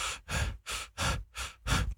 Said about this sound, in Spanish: sí vas a notar mucho más las, las respiraciones y demás